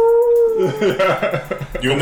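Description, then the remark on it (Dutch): A person briefly imitates a wolf howl with a steady, drawn-out tone lasting about half a second, then lively chatter and speech take over, loud. “En op het juiste moment ook eens huilen als dat echt een wolf”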